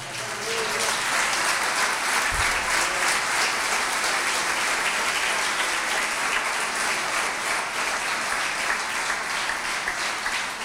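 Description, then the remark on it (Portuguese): An audience applauds the Lord in the morning, a dense wash of clapping hands that holds at an even, fairly loud level for about ten seconds with no voices on top. “Aplaude ao Senhor esta manhã.”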